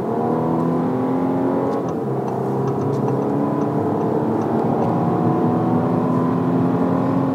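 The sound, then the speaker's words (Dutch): An Audi A5 car engine revs loudly and steadily as the accelerator is pressed, its pitch climbing, briefly dropping with a gear change, then rising again, with no one talking. “Dan is het toch net even leuker om gewoon lekker het gaspedaal in te drukken.”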